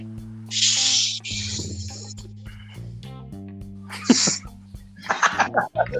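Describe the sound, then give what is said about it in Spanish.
A large bottle of beer is opened with several sharp, fizzy hisses and a brief pop, over a steady low tonal hum and some faint murmuring. “Perdón, estaba destapándome una caguana.”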